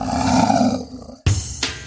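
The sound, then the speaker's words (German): A tiger gives a loud, rumbling roar that trails off, followed by two shorter, sharp bursts of roaring. No one speaks. “Den Tiger zum Beispiel.”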